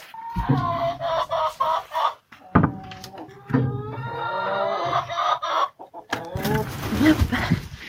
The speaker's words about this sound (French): Voilà, on vient d'ouvrir aux poules. Elles sont que toutes sorties.